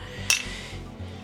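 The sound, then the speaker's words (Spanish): A single bright, sharp clink of glasses touching in a toast, ringing briefly over a low hum with no one speaking. “Salud.”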